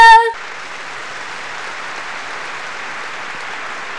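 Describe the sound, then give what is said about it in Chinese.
A live audience at a company product presentation claps steadily for several seconds, a dense, even wash of many hands after a brief tonal voice-like sound at the very start. No one speaks over the applause. “可不可以给我点掌声？”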